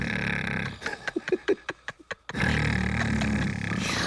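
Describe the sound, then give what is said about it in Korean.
Loud, rough snoring from men of a family sleeping together in one room at night, a snoring contest, breaking midway into a quick run of stuttering, sputtering snorts before the heavy rumbling resumes. No one speaks. “코골이 토너먼트야.”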